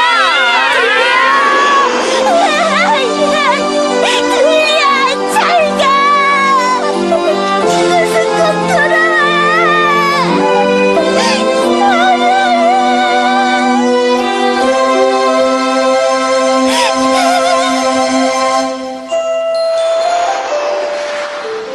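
A bright, bouncy children's cartoon theme song plays loud and close, with high youthful singing over a full, busy band, continuing without a break before briefly thinning out near the end.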